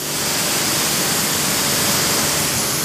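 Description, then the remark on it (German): A high-pressure water jet sprays continuously, a loud, steady hiss of rushing water with broad noise throughout, unbroken for the whole stretch, no voices. “Diese Kombination Druck und Wassermenge, ja.”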